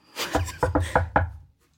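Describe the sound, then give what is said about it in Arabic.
A visitor knocks several quick times on the wooden door of a home, fairly loud, in an uneven rhythm with a light rubbing scrape under them, then silence. “أنا ببيتي وأنت جيت لعندي يلا دق الباب يلا يلا جاية”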